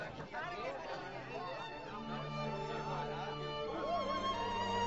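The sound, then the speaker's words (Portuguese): A crowd murmuring, many overlapping voices blending into a steady, indistinct babble with no single words standing out, holding at an even level throughout. “Venham, vamos entrar na multidão, ouvir alguma novidade.”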